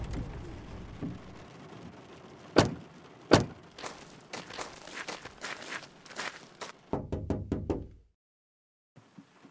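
A car idles and settles into a stop as it parks, then two sharp door slams ring out, followed by clattering knocks and shuffling before the engine noise cuts off into near silence.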